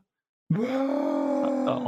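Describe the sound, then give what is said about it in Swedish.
The actor Red Brown lets out his trademark loud, sustained roar in an action film scene. It starts abruptly after half a second of silence and holds steady, strained and throaty, for well over a second. “Nej, och han är väl väldigt känd för att han, framförallt i hans mer actionbetonade scener, att han ger, han ger alltid ifrån sig ett vrål.”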